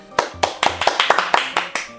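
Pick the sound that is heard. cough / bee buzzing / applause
applause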